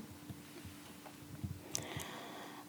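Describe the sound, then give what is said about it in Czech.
A cat crunches on dry food as a snack, a few soft, irregular crunches and clicks over a low steady hum, with no one speaking. “Kočka svačí, kdybyste to nepoznali.”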